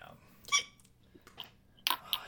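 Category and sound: human body sound, hiccup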